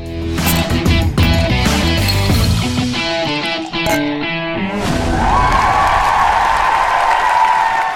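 A short burst of loud, busy music gives way to a sustained wash of crowd applause and cheering that fills the last few seconds, with a faint steady tone running underneath.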